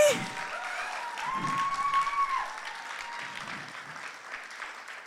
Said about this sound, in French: Si, tu reconnais que Christ est en toi, tu dois l'applaudir, faire quelque chose, bouge parce que il y a quelque chose qu'on n'a pas compris.